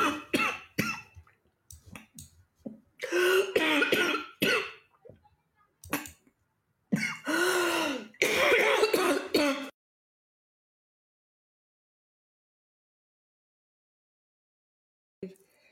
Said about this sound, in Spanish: mi tos, estoy bien. Obviamente un poco incómoda todavía, pero estoy bien.